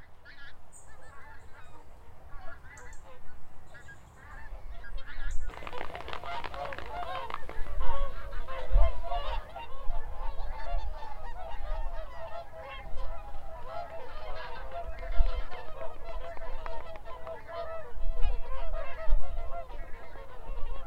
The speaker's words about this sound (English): In October, Scotland sees pink footed geese in record numbers. But normally they don't land here, they just over to Farm mm-hmm. in Fife. Lend me your ear as we implore the autumn choir at Vane Farm Nature Reserve.